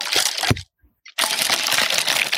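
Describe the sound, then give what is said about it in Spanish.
Ice cubes rattle and clink in a glass of water in two shaken bursts with a short pause between them, fairly loud, with no one talking. “Es agua con hielo. ¿Me escuchan, Nada más. ¿Se escucha?”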